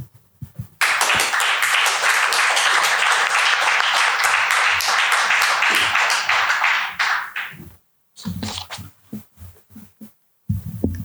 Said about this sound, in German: Wer ein Manuskript in der Schublade hat, sollte jetzt ganz besonders stark applaudieren.